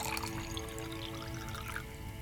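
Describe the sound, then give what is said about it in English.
Whisky is poured into glasses in a sitting room after dinner, a quiet, steady trickle with a faint rising ring as the glass fills. Unhurried, with no voices. “Margaret and Richard retired to the sitting room where he offered her a whisky.”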